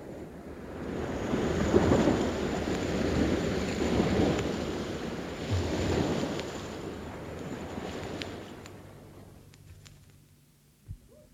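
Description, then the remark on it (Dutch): Heavy sea waves crash and roar in repeated surges, a broad rumbling wash that swells and recedes several times before fading to a quiet, low hiss, with a brief thud near the end. “En de Israëlieten zagen hoe het water over de Egyptenaren stroomde. Golf na golf.”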